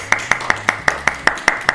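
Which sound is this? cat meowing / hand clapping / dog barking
hand clapping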